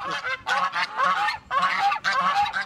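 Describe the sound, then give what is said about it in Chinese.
A goose honks loudly in repeated bursts, about four or five harsh, nasal calls in quick succession with brief gaps between them, and no talking. “那么这是鹅的叫声。”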